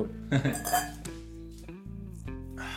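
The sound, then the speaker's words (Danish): Glasses clink together in a toast to success, a cluster of bright, ringing taps followed by several more chimes that hum and fade, with faint voices in the background. “Skal vi runde af med en ja, skål for succes?”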